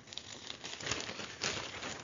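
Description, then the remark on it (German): Newspaper pages rustling and crinkling, with two fuller swishes as the pages are flipped over to page 6, fairly quiet and with no voices. “Oh Gott, weil ich so weit, äh, weil ich so weit blättern muss, ne?”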